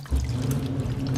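Steady rushing and sloshing of water with a low mechanical hum underneath, a washing machine filling and churning as it washes a blanket with seafood hidden inside, continuous for the whole moment with no voices.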